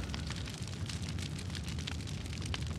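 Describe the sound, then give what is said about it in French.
A large fire of slash-and-burn agriculture roars steadily through vegetation, clearing forest land by burning, with dense, irregular crackles and pops over a deep continuous rumble, fairly loud, and no voices. “Le bruit que vous entendez là, c'est celui de l'agriculture sur brûlis.”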